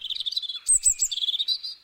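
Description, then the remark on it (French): A European robin sings a rapid, high, warbling phrase of thin whistles and trills, clear, with no talking over it. “Dans Paris intramuros, la population de rouge-gorge familier est en nette augmentation.”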